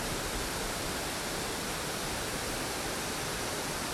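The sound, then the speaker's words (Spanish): A steady, dense rush of water falling from a waterfall roars without pause, even and full, with no voices or other sounds. “Escucha el fluir del agua.”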